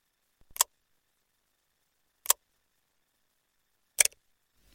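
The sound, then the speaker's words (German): A safe's combination dial clicks as it is turned to the right, three crisp ticks spaced evenly apart with silence between them and no voices. “Ich drehe wieder nach rechts.”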